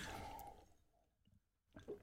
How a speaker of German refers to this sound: Oh, ja. Sehr gut. Ich äh, trinke kurz zwischendrin.